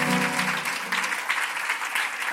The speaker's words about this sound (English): Let's give the Lord a great hand clap today. Come on. Come on. Amen.